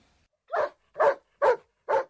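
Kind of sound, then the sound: animal, small dog barking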